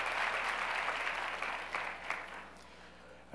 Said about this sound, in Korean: 어, 굉장히 떨리실 거예요. 어, 여러분들께서 박수해 주시고 격려해 주시고 어, 감사합니다.